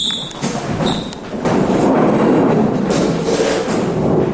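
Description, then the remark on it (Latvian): Many chairs being set down in a semicircle at once by young acting students trying to place them without sound, at a first acting class in Liepāja: a continuous, fairly loud clatter of knocks, thuds and scrapes, with a few squeaks of legs dragging on the floor near the start. “Pirmais uzdevums - nolikt pusaplī krēslus bez skaņas. To, cik klusi tas jaunajiem izdevās, var dzirdēt pat ļoti labi.”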